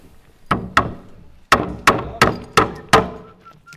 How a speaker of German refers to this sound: Auf der Baustelle in Putzbrunn genügen wenige Hammerschläge, um den Lichtschacht zu sichern. Da wird ein Brett unten reingenagelt, unter die Bohlen, vorne und hinten, dass die nicht mehr sich verschieben können.